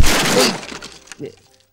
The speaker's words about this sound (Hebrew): למשל, אם אקח פה פטיש ואזרוק באוויר, זה בטח יעוף ויפגע בקיר.